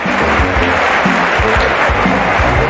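A burst of crowd applause, dense and steady, with many hands clapping together at an even loudness from start to finish, and a faint low murmur underneath.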